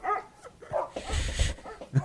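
Several sharp dog barks and yips in quick succession, fairly loud and close, with short gaps between them and no talking over the sound.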